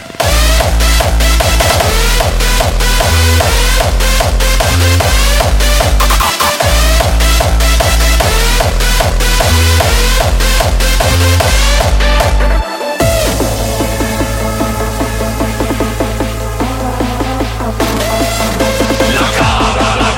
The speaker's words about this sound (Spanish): Es una canción que rompió estigmas en, en los años 90 y es esta canción que se llama …